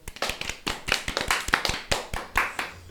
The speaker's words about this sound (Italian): applauso, applauso.